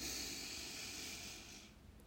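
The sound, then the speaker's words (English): A single slow, airy breath drawn in, the belly expanding during a diaphragmatic breathing exercise, a soft steady hiss lasting nearly two seconds before trailing off into quiet. No one speaks. “So, breathing in, the belly expands.”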